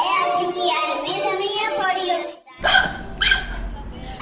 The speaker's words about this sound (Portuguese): Vocês estão ouvindo isso, crianças? Sabe que som é esse? Isso mesmo, é soluço. Vocês também soluçam?